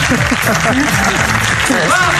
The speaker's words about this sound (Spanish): A mí me llama mucho la curiosidad, me llama mucho la atención, me da curiosidad ese arranque de los aplausos diciéndola guapa, guapa. Esto ya no, esto ya no se dice en tele.